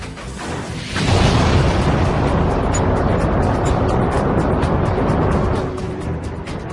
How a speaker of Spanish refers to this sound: Todos los viajes se inician con un primer paso. El de Marte será la explosión de llamas que hará que despegue una nave lanzadera.